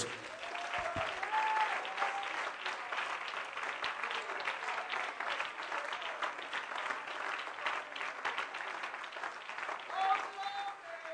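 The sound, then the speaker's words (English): An audience claps hands again at an evening service right after a prayer, sustained applause with a dense, steady patter of many hands at moderate loudness for several seconds, with faint voices and cheers mixed in. “Why don't you clap your hands again tonight before you.”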